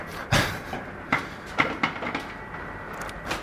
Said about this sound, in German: Ja, die Eiswürfelmaschine. Ein sehr gerne gehörtes Geräusch.